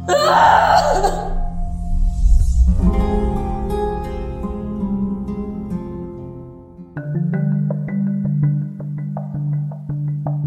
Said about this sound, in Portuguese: se sentou ali mesmo no chão do hospital e, desamparada, gritou de angústia.